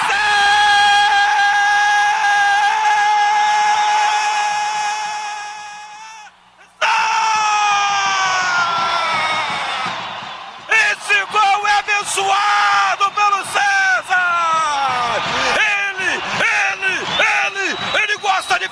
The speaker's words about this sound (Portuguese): É, o torcedor chamou, gritou o nome dele e ele atendeu o Vanderlei.